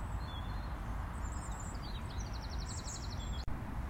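Springtime birds chirp and twitter in high, quick bursts, including a rapid run of repeated tweets, set against a steady outdoor rumble of wind or background noise. No one speaks.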